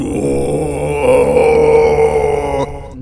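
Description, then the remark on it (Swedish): A voice imitates the deep, booming horn blasts heard in the film Arrival, one sustained, loud low drone that swells slightly midway and cuts off near the end. “sådana horn, eh, hornstötar som kommer där precis.”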